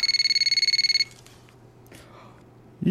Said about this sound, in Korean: 그때였습니다. 저의 휴대폰이 울리더군요. 제 남자친구였습니다.